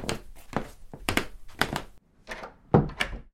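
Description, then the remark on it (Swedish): The unlocked back door of a house is worked open and shut: a run of wooden thunks and latch rattles, a short pause, then a heavier closing thud and a final click. “Efter middagen gick han in i Maltes del av huset. Bakdörren hade varit olåst.”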